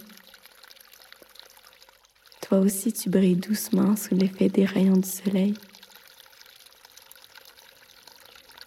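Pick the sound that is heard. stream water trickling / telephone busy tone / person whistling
stream water trickling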